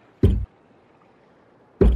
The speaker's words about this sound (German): Dann hörst du jetzt Backbord vom Heck äh, ungefähr, also die grobe Richtung, ein Klopfen.